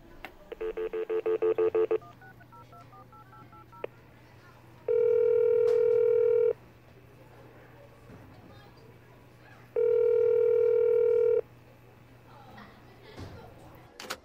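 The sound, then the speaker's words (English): A quick burst of about a dozen phone keypad beeps, followed by two long, steady ringing tones a few seconds apart as the call connects, clear over a faint low hum. “Want me to call her?”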